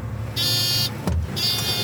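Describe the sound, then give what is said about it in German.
A delivery truck rumbles low and steady as it drives onto the market grounds in the city of Zürich, with two short bursts of high mechanical whine and a brief thud between them. No one speaks. “Nach einer kurzen Fahrt sind wir in der Stadt Zürich angekommen und fahren aufs Areal.”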